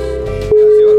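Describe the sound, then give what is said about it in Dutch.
A mobile phone ringtone suddenly blares in, a loud, steady electronic tone that holds without a break, following a short stretch of muffled shuffling noise. “mijn telefoon gaan over. Hij gaat erover.”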